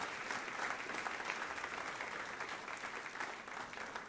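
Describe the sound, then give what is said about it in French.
An audience claps steadily and continuously during a sermon, a dense, even patter of many hands sustained at a fairly loud level throughout, with no voices standing out. “Mieux vaut être pauvre avec Christ que riche sans lui, et que tous ceux qui le croient disent Amen et applaudissent.”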